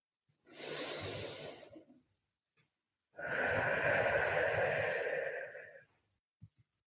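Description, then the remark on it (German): Two long, deep breaths during a guided breathing exercise: a steady airy inhale through the nose of about a second and a half, a pause, then a longer, fuller exhale through the mouth lasting nearly three seconds, with no talking. “kannst das Geräusch deines Atems wirklich hören.”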